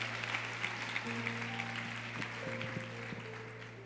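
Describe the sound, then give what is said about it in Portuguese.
An audience applauds steadily with dense, continuous clapping for several seconds, joined by a low electrical hum and a few faint sustained tones underneath. The clapping fades slightly toward the end. “Uma salva de palmas, gente.”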